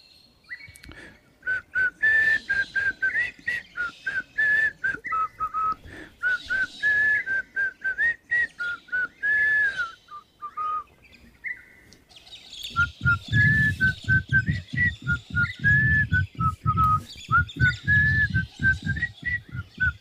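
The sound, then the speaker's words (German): A person whistles a melody in clear, bright tones for the whole stretch, with a brief pause midway; the second half carries a low rumbling background underneath. “Ich mache es dir vor und du pfeifst die Melodie draußen nach.”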